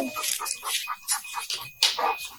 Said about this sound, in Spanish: Perros putos. Háganse para allá, lejos.